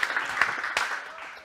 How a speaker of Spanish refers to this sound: Dele ese aplauso al Señor. Gloria a Dios.